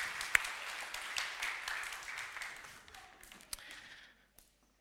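A crowd applauds with dense, steady clapping that holds for about three seconds, then thins out and fades, a few sharp louder claps standing out before it stops.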